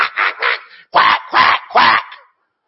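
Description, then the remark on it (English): A person mimics a frantic duck with six quick, loud, nasal quacks: three softer ones in a rapid burst, then three stronger, drawn-out ones, with no other sound. “Sounds like a duck going nuts at the pond because, you know, there's a cat nearby.”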